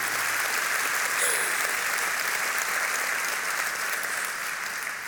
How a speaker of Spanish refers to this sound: Sí, démosle un aplauso porque nos ama. Él nos ama.